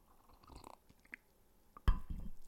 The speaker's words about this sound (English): A quick sip of coffee, please. Hold on.